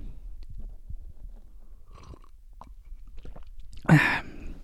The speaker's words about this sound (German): Und während ihr das tut, beziehungsweise äh, sucht und abonniert, muss ich nochmal einen Schluck Tee trinken.